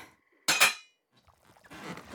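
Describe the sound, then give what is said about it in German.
A metal soup pot is set down on the stove with a bright, ringing clank that fades over a fraction of a second, followed by softer shuffling and rustling of kitchen activity. “Ich stelle die Suppe auf den Herd.”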